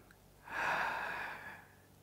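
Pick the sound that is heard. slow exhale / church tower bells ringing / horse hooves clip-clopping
slow exhale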